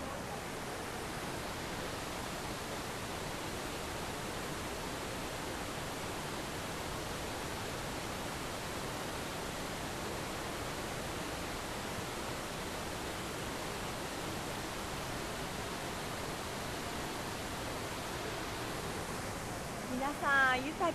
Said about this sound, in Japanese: の滝の姿は目に浮かびましたでしょうか